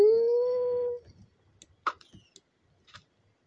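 A single dog howl, a steady sustained tone lasting about a second, then quiet scattered clicks and taps.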